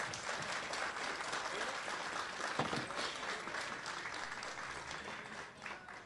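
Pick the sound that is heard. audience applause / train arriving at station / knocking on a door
audience applause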